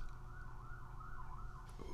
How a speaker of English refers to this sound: ooh, a little siren action in the background there go speeding off.